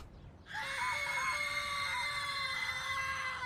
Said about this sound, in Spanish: El grito aterrador de todos los presentes se dejó escuchar al unísono,